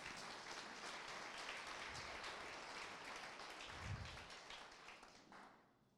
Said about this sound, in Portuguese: Aplauda o Senhor bem forte nessa noite.